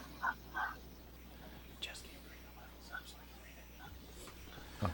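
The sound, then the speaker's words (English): Quiet, breathy whispering from people set back from the microphone, faint and hushed, with a few brief soft bursts of sound scattered across the few seconds. “Whisper, whisper, whisper, whisper.”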